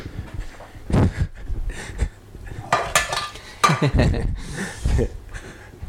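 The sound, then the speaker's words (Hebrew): Ceramic dishes clink and clatter as a plate is set down, several sharp knocks and scrapes spread over a few seconds, fairly loud, with faint bits of voice in the background. “אמ, טוב, אז אנחנו נביא אה, צלחת, בואו נביא איזה צלחת יפה כזאת, אולי כזאת.”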